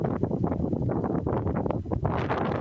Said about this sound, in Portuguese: se você conseguir trocar de local, o vento tá fazendo muito barulho